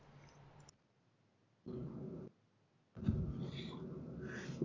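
A dog growls and barks excitedly in loud bursts as a UPS delivery arrives, with a brief quiet gap before a longer, rougher stretch at the end. No one speaks.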